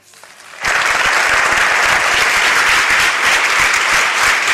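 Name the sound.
audience applause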